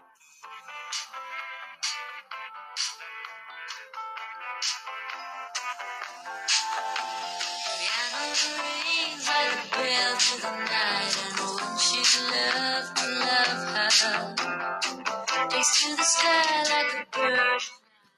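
A song played on piano, with a woman's voice singing a sustained melody over steady, struck chords; the music grows fuller and louder after the first few seconds and continues without talk.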